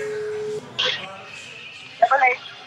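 A steady, low phone ringing tone hums for about half a second, followed by a few short electronic chirps and blips as a call to someone at De Kuip stadium in Rotterdam connects.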